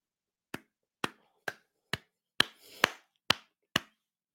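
One person claps their hands slowly and steadily as applause, about eight sharp claps evenly spaced roughly half a second apart, with no talking, just a faint rustle partway through.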